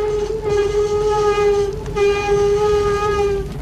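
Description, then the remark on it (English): A screeching-brakes sound effect: one long, loud, shrill squeal with ringing overtones over a low rumble, wavering briefly midway and holding for about three and a half seconds. No one speaks. “Slam the brakes for a second.”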